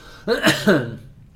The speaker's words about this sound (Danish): Undskyld, den trænger sig på, den der hoster.